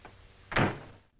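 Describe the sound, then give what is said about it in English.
A single door swings shut with a solid thud, preceded by a faint click of the handle, and then quiet. “In the opening scene, we hear the door close.”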